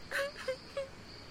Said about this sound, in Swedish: Men plötsligt hörde de skrik och gråt alldeles intill.